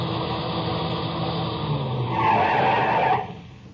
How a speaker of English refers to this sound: I heard the whine of a car coming over the rise in the rough road as the first glimmer of the headlights stabbed the darkness.